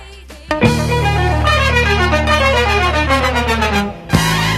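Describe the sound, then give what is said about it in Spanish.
A cover version of a song plays loud and full, with a steady bass line under layered melodic instruments. It cuts in abruptly, drops out briefly near the end, then resumes. “El cover suena así.”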